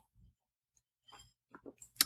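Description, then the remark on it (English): Someone takes a quick sip of Diet Coke: a few soft, wet mouth clicks and slurps, then a brief gulp and a sharp fizzy hiss at the end. “Excuse me while I have a sip of”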